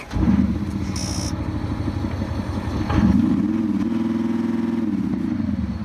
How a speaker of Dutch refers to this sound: Ja, dit is wel een hele perfecte dieselmotor, want deze heeft geen uitstoot. Tenminste, als je hem zo hoort.